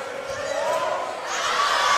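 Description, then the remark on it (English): A dense crowd of voices cheers and shouts continuously, a steady wash of yelling and whoops from the packed Vikings student section cheering their team on at a volleyball game against the Comets, fairly loud and sustained throughout. “trying to cheer their team on”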